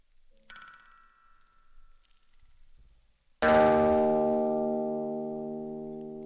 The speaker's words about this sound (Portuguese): Eita! Alto esse som, né? Você consegue reconhecer? O barulhinho macio ao fundo, eu posso te dizer, é neve caindo. E o som é uma guitarra. Um casal na Suécia resolveu colocar um instrumento ligado do lado de fora de casa.